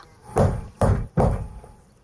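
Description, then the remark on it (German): Three heavy, booming thuds as a hoof pounds hard on a giant gate in quick succession, loud, each blow ringing out briefly before the next. “pochte mit Schmackes gegen das Tor.”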